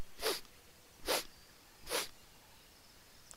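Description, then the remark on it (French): A dinosaur sniffs through its nostrils: three sharp, breathy inhalations, evenly spaced about a second apart, fairly loud, with quiet between them and no talking. “vous entendez clairement ces, inspirations vers ses narines. Il semble renifler.”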